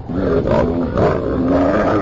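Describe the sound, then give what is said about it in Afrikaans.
A hyena growls in a low, rough, continuous rumble that wavers in pitch as it pushes an Easter egg forward with its nose, loud and unbroken for about two seconds with no talking. “Knor Herman Jena en stamp vir Pokkel met sy neus dat hy 'n end vorentoe rol.”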